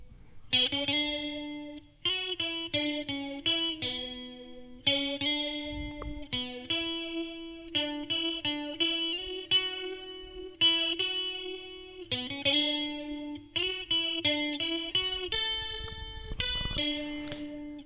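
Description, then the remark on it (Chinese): A melodic electric guitar line of clean, sustained notes and short phrases, coloured by a sweeping, metallic flanger modulation that adds a shimmering, swirling edge around the tone; no voices. “但是呢，你听上去呢，就好像是，呃，这个声音外面啊，镶了一层这个边框一样。”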